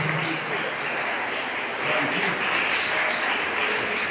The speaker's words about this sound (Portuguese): Dê uma salva de palmas muito forte para o Senhor.